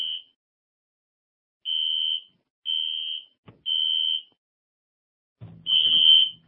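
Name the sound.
fire alarm ringing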